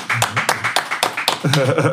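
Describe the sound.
An audience claps to welcome a guest, in a steady rhythm, about four sharp, crisp claps per second, with voices talking and cheering underneath throughout.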